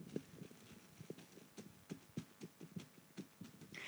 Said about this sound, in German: Es ist halt, es ist halt eine Plastiktüte, auf der man schläft. Und das ist natürlich so ein äh, doch anderer Sound.